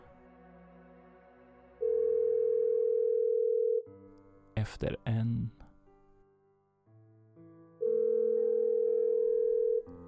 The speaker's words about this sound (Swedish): Du slår in numret. Signalerna går en efter en